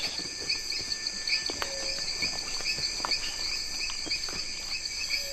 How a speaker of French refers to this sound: Il y a les petites grenouilles qui se réveillent.